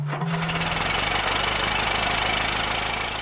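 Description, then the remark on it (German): A vintage Ford Model T engine, from the first car built on an assembly line and launched in the USA in 1908, runs steadily, its rapid rhythmic chugging and knocking loud and continuous throughout, with no voices present. “Da bringt Henry Ford nämlich sein T-Modell heraus. Und das klingt so.”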